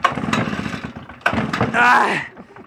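A small two-stroke leaf blower engine is yanked with a pull cord in a few rough, sputtering bursts that fail to catch, with a voice mixed in.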